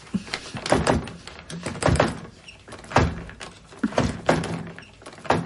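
Repeated clunks and rattles of a woman struggling to open a bathroom door latch, several sharp knocks and jiggles in uneven bursts, fairly loud with no one speaking.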